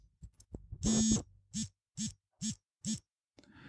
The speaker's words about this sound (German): Am Morgen früh kann das anfangen mit meiner akustischen und vibrierenden Uhr. Vielleicht hört man das.